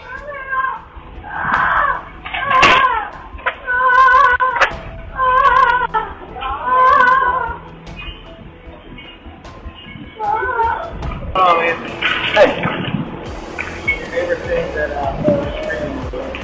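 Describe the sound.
A pet parrot named Rambo screams "help" ("auxilio") in Spanish over and over, loud shrill voice-like bursts in quick succession, followed by rougher, noisier calls and background sounds.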